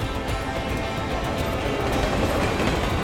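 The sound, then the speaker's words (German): A train to Frankfurt rolls steadily along the rails with a continuous rumbling roar and faint rhythmic clatter, fairly loud throughout, with no voices. “Sie nimmt den Zug nach Frankfurt.”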